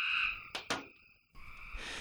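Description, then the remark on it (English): A gray tree frog's steady, buzzy trill, broken by two brief sharp bursts and a short silence, then the trill resumes, clear with no one talking. “The gray tree frogs are adaptable.”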